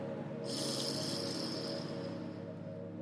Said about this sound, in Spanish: Antes de comenzar con las afirmaciones, me gustaría que hagamos una respiración profunda para regresar al tiempo presente. Así que vamos a inhalar